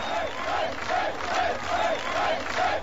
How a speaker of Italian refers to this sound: C'è gioia, una gioia tranquilla. Tanta gente stanotte è andata a per festa a Berlino Ovest e poi questa mattina è tornata al lavoro. Libertà, libertà stanno scandendo.